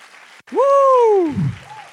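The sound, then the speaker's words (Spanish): An audience claps steadily throughout in a loud round of applause for Jesus during a church sermon, while one voice rises over it with a long, drawn-out cheering shout that swells and then falls away. “Vamos a dar un aplauso fuerte a Jesús”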